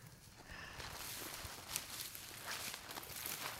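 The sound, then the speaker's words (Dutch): Footsteps squelching through the wet, spongy ground of a floating peat bog with water beneath, made of undecomposed plant remains topped with peat moss; a steady run of soft, muffled steps with a broad hiss of outdoor noise and no talking. “We lopen hier ook op een drijvend stuk grond. Hieronder zit gewoon allemaal water.”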